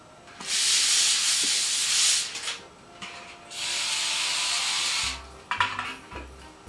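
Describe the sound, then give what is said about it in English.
Two steady hissing bursts of cooking spray, each about two seconds long, sprayed lightly onto two pans for baking and broiling fish, followed by a few light clinks and knocks of metal. “There's a slight spray on both pans.”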